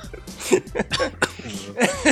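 Several short, close coughs come in quick bursts, mixed with throaty, voiced sounds that could be a chuckle or throat clearing, and no clear speech.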